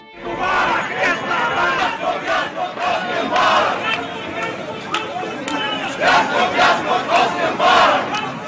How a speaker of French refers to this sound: La campagne qui s'ouvre s'annonce mouvementée et les cris de Moubarak dégagent, fleurissent dans les marges de l'opposition